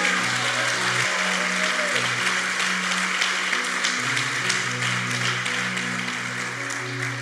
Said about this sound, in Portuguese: Se você crê nisso, aplauda o Senhor bem forte, porque Ele é Deus.